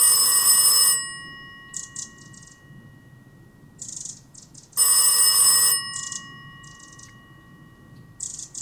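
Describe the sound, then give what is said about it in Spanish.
A telephone hidden in a castor-oil plant with broad violet leaves rings loudly in two bursts about four seconds apart, with softer brief chirps between rings over a low, steady rumbling background. “Sonó un teléfono oculto en un ricino de anchas hojas violetas.”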